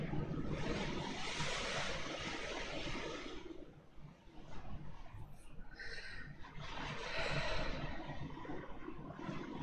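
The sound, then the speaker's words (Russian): Heavy rain from a thunderstorm beats against a wall in a dense, continuous roar, loud, easing slightly for a moment midway before surging back to full strength. “А, судя по звуку, он оттуда ебашит. Именно с той стены.”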